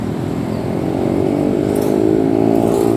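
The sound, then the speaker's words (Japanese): Steady, loud street traffic in Hanoi, Vietnam, with motorcycle engines droning and revving alongside passing cars, a continuous low rumble filling the whole stretch with no voices. “それで、まあ、昨日もねかなり、あのー、バイクの音とか車の音がうるさかったと思うんですが今日も引き続きうるさいバックグラウンドに交通の騒音が入っていると思います”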